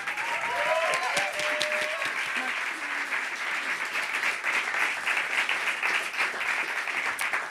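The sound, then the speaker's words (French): Sustained audience applause at a live music performance for four accompanying musicians, a dense steady wash of many hands clapping throughout, with a few faint voices and whoops rising briefly above it early on. “Je pense qu'on peut les applaudir très fort, s'il vous plaît.”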